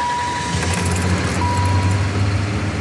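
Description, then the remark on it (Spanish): A car engine runs, a steady low rumble that swells slightly as the car pulls away after the driver gets in and fastens the seatbelt, with faint high tonal beeps mixed into the road noise. “abrís la puerta del auto, subís, te pones el cinturón y arrancás.”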